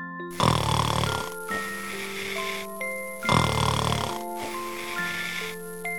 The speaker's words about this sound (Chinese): 熊妈妈睡着了，熊爸爸却没有。熊妈妈开始打呼噜。